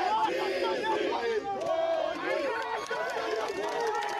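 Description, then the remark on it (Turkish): A dense crowd of tea producers, gathered in Hova Square in the Black Sea region to protest quotas on tea purchases, shouts and yells over one another as police intervene, voices rising and falling in agitated bursts, loud with no pause in the commotion. “Yaşadıkları mağduriyetleri duyurabilmek için bir araya gelen çay üreticilerinin bugün Hova Meydanı'ndaki buluşmalarına polis müdahale etti.”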